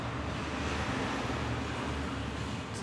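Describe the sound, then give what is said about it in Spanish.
Steady street traffic noise carries in through a large open door of a burger restaurant facing a semi-main city street, a continuous low rumble of passing cars and vehicles, with no clear voices and no breaks. “la puerta es grande, da a una calle semi principal y ahí se oye el ruido”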